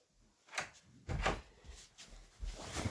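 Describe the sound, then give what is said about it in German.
A door being closed: a few quick knocks and scraping clunks spread over a couple of seconds, ending in a firmer thud, with no voices. “Ich muss schnell die Türe schließen.”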